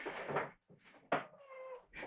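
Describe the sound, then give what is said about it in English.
A cat meows insistently, giving a few loud, drawn-out cries in quick succession with brief pauses between them and no talking. “I'm also ignoring you because I know you're immediately going to claw apart my fucking hand.”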